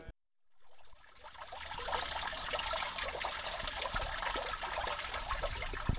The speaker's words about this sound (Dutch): Staan we hier bij een waterval? Ja, nou, het is gewoon eh, de drainage hier eh, van de dierentuin van Oestinet Labem.